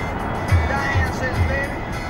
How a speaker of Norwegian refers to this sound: her er hun ute i bilen og musikken, musikken på for fullt.